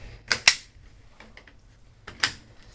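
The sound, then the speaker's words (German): Marbles clack together sharply during play on the first floor, two quick hard clicks close together, then a pause with faint small ticks before one more crisp knock. The hits are loud, with no talking. “Die Geräusche kamen aus dem ersten Stock, und zwar war, waren dort zwei Gestalten, eine schwarz und eine ganz weiß, und diese spielten gerade mit Knicks.”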